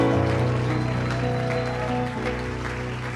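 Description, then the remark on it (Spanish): A church audience applauds steadily in worship over loud, sustained keyboard chords, the clapping forming a dense, continuous wash throughout. “Apláudale fuerte al Señor.”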